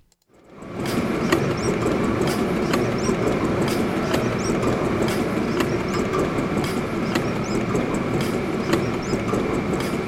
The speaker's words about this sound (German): Was wir hier gehört haben, sind der 1000 PS Motor vom Funkerberg, der Heidelberger Tiegel in der Museumsfabrik Pritzwalk und ein Musterkrempel aus dem Textilmuseum Forst, jeweils in akustischen Detailaufnahmen.